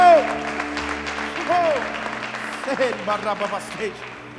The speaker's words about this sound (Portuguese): dê um brado ao Senhor e adoro nesse lugar e adoro. Oh! Aplauda o Senhor, aplauda o Senhor, aplauda o Senhor.